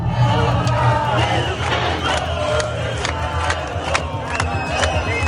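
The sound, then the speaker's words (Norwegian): A large protest crowd gathered outside the Knesset, the national assembly, shouts slogans against the new government in a loud, continuous roar of voices, with sharp rhythmic bursts cutting through as people chant and yell in unison. “Snart samla folk seg utafor nasjonalforsamlinga Knesset og ropte slagord mot den nye regjeringa.”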